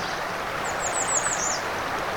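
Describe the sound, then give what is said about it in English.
A killdeer gives a quick run of six or so shrill, descending notes over a steady rushing background like flowing water. No one speaks. “There goes a killdeer.”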